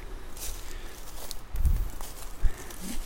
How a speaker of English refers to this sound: And now my feet are walking to the gravel road. And I'll walk my way around, get some exercise, get rid of some of the anxious energy of sitting in a car.